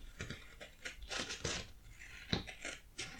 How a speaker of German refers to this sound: bisschen gegen das Mikrofon gedopst. Ja. Das hört sich gut an.